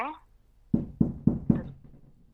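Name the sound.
knocking on a door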